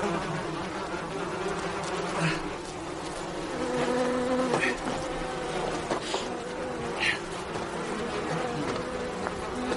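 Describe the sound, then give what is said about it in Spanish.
Several wasps buzz steadily around an open zipper at the neck of a beekeeper suit, their droning hum rising and falling as they swirl around, with brief sharper whines as individual insects pass by. No one speaks. “Varias avispas se acercan a una abertura de la cremallera que ha quedado abierta a la altura del cuello del traje de apicultor.”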